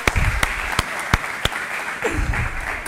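A round of applause: a crowd claps in a dense, steady patter, with a few louder, evenly spaced claps standing out above the wash for about three seconds.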